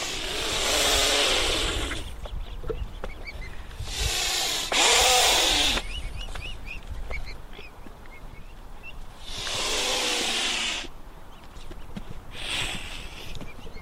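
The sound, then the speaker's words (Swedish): A mute swan hisses in several long, harsh, breathy bursts, about four in all, loud and rough with short pauses between, and faint scratchy rustling in the gaps. “Det är sällan man hör en knölsvan ge ifrån sig så mycket ljud. Det är just ett väsande om den är arg på en.”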